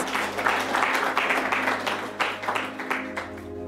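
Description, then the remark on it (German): A crowd applauds steadily for a group of boys for a few seconds, a dense wash of many hands clapping at moderate volume, with a low steady hum underneath. “Ein Applaus für diese Jungs.”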